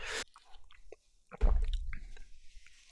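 A wet swallow and slurp of cola, with a brief squishy gulp followed by a stronger mouthy swallow and soft liquid sounds, no talking.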